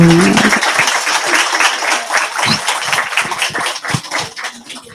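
An audience at a book event breaks into sustained applause, a dense, steady wash of many hands clapping at once that carries on at full strength for several seconds, loud.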